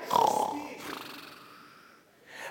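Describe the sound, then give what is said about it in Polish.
A person imitates snoring, portraying the biblical Samson asleep, with a loud, rasping snort, then a long breathy exhale that trails off, followed by a brief, softer breath at the end. “A może już chrapiesz.”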